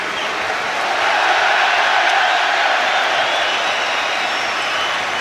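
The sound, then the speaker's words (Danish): A big stadium crowd at Anfield cheers Harvey Elliott on his first return since September, in a loud, dense, sustained roar that swells slightly early on and then holds steady for about five seconds, with no single voice standing out. “Harvey Elliott returning for the first time to a massive cheer since September.”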